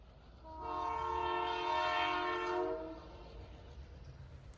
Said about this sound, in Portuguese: Agora, o trem segue viagem novamente. Dessa vez iremos até Bezerros.